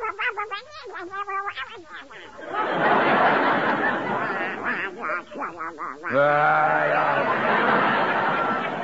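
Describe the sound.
A voice imitates a duck, sputtering out a loud, raspy stream of quacking noises, starting with a few choppy squawks and then running on in a continuous buzzy jabber.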